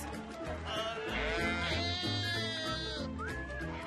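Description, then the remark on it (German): Sheep bleat loudly, several wavering calls overlapping in a steady flock chorus, with one last rising bleat near the end. “Für uns sind unsere Schafe unsere Autos.”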